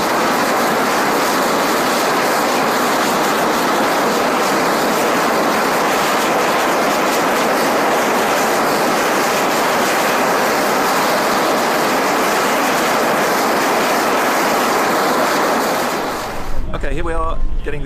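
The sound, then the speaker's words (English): The jet engine of a land speed car roars loudly and steadily during a test run, a dense, continuous rushing blast that holds for about sixteen seconds before cutting off abruptly. “Successful jet engine run today. Got the engine started, got the engine oil flushed uh, through, so the engine is now ready to drive this car at high speed across the desert.”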